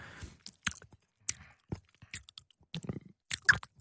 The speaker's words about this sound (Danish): Hvorfor altså, det... smasker. Det var da en virkelig ubehagelig lyd. Hvad for noget? Du, du sad sådan lige og smaskede.